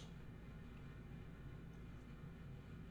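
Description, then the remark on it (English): A space heater runs loudly with a steady, deep droning hum and fan rush, constant in level throughout, with no voices over it. “What's that noise? It's just the heater, dude.”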